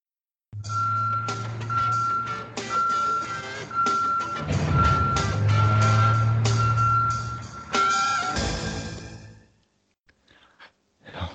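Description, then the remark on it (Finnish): A garbage truck's reversing alarm beeps in a steady, evenly spaced series over a loud, rumbling diesel engine, then cuts off, leaving a few faint clanks. “kuulen jo Duke the Dumpster Drowsin kutsun. Tämä on kaatopaikka.”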